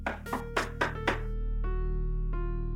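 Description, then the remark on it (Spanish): Four quick, evenly spaced, firm knocks on a bedroom door at around half past eleven at night, followed by a couple of sustained musical notes ringing out afterward. “Eh, de repente este, escucho así en la puerta de mi cuarto.”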